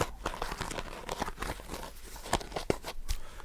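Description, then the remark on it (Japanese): A small plastic toothpick case being handled, with a series of crisp clicks, rattles and crinkly scrapes in an irregular rhythm, a few sharper snaps standing out. No one speaks. “ケースね。箱っていうかケースね。”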